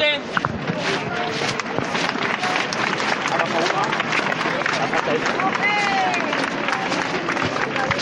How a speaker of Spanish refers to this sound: Vamos a intentar escuchar ese rachear de este paso de los costaleros de la urna del Santo Sepulcro.